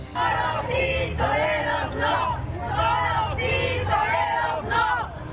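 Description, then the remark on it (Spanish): A large crowd protesting the return of bullfights chants loudly in unison at the Plaza México bullring, voices rising and falling in repeated rhythmic phrases, with a steady roar of many people underneath. “Entre agresiones a los asistentes, manifestaciones, protestas e intentos de portazo se llevó a cabo el regreso de las corridas de toros a la Plaza México.”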